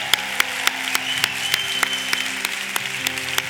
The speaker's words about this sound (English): So right now, let's celebrate these people. They come out of the scene, come on down to the altar. Let's give them a hand. Come on down, church.